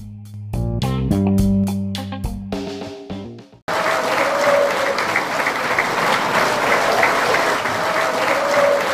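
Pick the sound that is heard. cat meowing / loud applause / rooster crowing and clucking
loud applause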